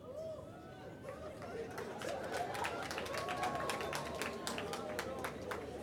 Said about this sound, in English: You're clapping.